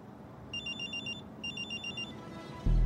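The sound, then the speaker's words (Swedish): Sixten's telephone rings in two short bursts of bright, trilling electronic tones over a low background hum, followed by a sudden loud low thump at the end. “Då ringer Sixtens telefon.”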